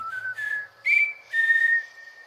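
A series of four clear, high whistled notes in quick succession, steady in pitch, a whistled greeting answered from the land beyond by what seem to be more and more whistlers, with no talking.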